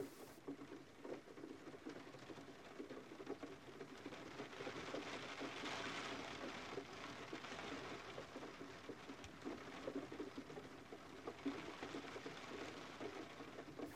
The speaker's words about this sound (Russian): начинается дождь.